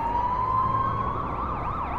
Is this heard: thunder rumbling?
no